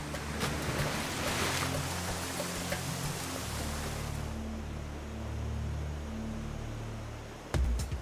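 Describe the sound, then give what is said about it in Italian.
A waterfall pours with a loud, steady roar of rushing water that fills the whole recording, a deep low rumble beneath it, and a brief louder splash near the end. No one speaks. “C'è una tale forza sotto quella cascata.”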